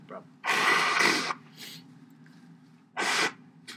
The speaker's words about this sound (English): Please excuse me. I'm, I'm going to blow my nose.